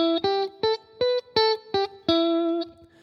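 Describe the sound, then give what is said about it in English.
A distorted electric guitar plays a short, basic solo lick of three picked notes plus a fourth bent upward in pitch, ending on a sustained note; clear with no talking. “Now, what I've done there is I'm taking these three notes here, and I guess four if you're counting the bend, up to that one.”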